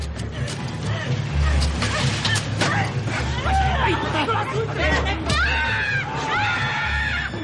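A frantic crowd of neighbours shouts and screams, with sharp thuds and bangs scattered through the din as they pound on a door trying to break it down.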